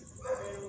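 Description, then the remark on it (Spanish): A dog outdoors gives a short, whining bark with a faint whimpering edge, a single brief burst against a steady background hiss. “Y disculpen el ruido del perro”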